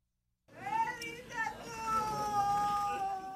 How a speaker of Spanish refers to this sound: Un grito desgarrador cuando no hay palabras. El dolor se apoderó nuevamente de Jerusalén luego de que un hombre armado matara a siete personas en una sinagoga el viernes.